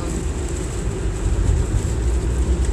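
Steady, loud low rumble of road noise from inside a car driving on a Friday night, with a constant hiss on top from fairly heavy rain on the vehicle; no one speaks.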